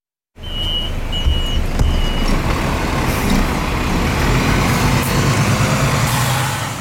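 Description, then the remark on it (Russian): Steady street traffic rumbles at a crowded bus stop by the Deglovsky bridge, heavy vehicles and a bus idling and passing, with a few short high electronic beeps early on and no talking. “На остановке у Дегловского моста толпится народ.”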